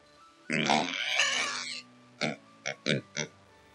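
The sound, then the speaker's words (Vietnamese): A person tries to imitate a rooster crow, but it comes out as a long, strained, harsh, piggy squeal, followed by four short snorting grunts in quick succession, fairly loud. “Nó càng giả tiếng gà thì càng ra tiếng heo”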